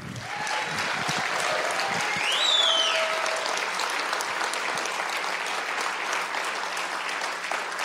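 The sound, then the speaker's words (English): An audience applauds a woman who has just shared her testimony, a dense wash of clapping that stays loud and sustained throughout, with a few faint cheers or whistles rising briefly midway. “Let's hear it for”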